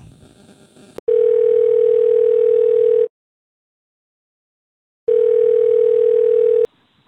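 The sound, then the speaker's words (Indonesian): A phone's ringback tone sounds twice as a call is placed to a band drummer, each a loud, steady electronic tone lasting about two seconds, with a silent gap between them. There is no talking. “Langsung saya telepon, semoga ngangkat ya dia ya.”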